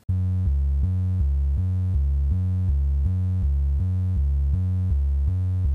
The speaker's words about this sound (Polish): Jest tu jeszcze jedna partia basu granego przez syntezator. W oryginale to czysty, nieco przesterowany i poddany kompresji sinus. Tu do jego wytworzenia użyłem syntezatora serum z lekko odkształconym przebiegiem.